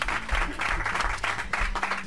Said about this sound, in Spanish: Fuerte aplauso.